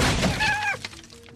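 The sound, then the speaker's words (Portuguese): A wooden chair smashes against a wall and breaks apart into several pieces in one loud crash of splintering debris, a brief high whine riding over it before the noise drops to a quiet rattle. “Vocês estão lá conversando, discutindo, de repente escuta um barulho de uma cadeira se jogando contra uma parede e se partindo em vários pedaços”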